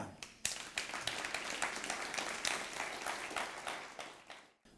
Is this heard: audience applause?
yes